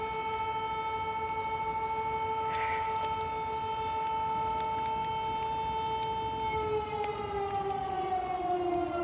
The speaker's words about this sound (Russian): И, конечно, финал первого эпизода, когда вся семья собралась за праздничным столом, и вдруг включается сирена.